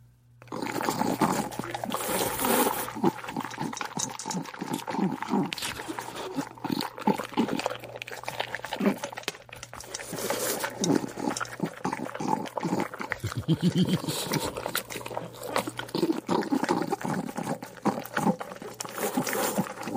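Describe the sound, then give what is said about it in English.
A dog eats dog food mixed with a little spaghetti, eating noisily with rapid wet chomping, smacking and slurping that runs continuously and unevenly throughout, over a faint steady hum. “If you just give her regular dog food, she enjoys it.”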